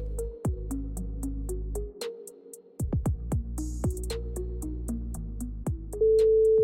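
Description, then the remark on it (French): A telephone rings on 17 January 2022 at 12:27 with a loud electronic ringtone: a quick melody of short, evenly paced beeping notes, pausing briefly, then repeating and ending on a sustained steady tone. No one speaks. “Le 17 janvier 2022, à midi 27, le téléphone sonne.”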